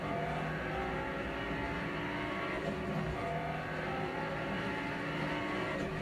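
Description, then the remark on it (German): A Lamborghini engine roars steadily at high revs at full throttle on a road, loud, with a dense, continuous growl and slight pitch shifts as it accelerates, no voices over it. “Und Vollgas auf der Straße mit dem Lambo, Leute.”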